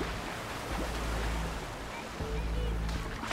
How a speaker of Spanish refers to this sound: El mar estaba revuelto como casi siempre en esa playa